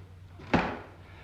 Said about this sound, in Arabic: بس امرهم يقفلوا الباب طلبك مجاب اقفلوا الباب